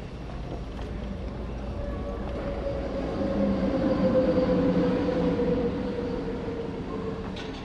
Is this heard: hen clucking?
no